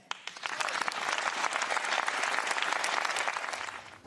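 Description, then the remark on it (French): Sustained applause from a large group in the French parliament hemicycle: deputies of her own party, LR deputies and about a dozen majority deputies (Modem, Horizon) applauding Marine Le Pen; dense overlapping claps holding steady for several seconds with no voices rising above it. “Marine Le Pen, vivement applaudie par les siens, par les députés LR, et aussi, on ne les voit pas à l'image, par une dizaine de députés de la majorité, Modem et Horizon”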